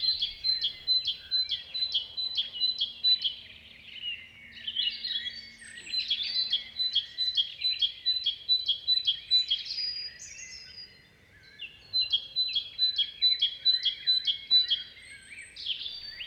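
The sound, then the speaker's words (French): A great tit sings its bright two-note 'titu' phrase over and over in rapid, rhythmic bursts, clear in the foreground, while many other bird species chatter and trill more faintly in a forest chorus in April. “Cette première ambiance a été réalisée au mois d'avril dans une forêt, et le l'oiseau qui est en premier plan est la mésange charbonnière.”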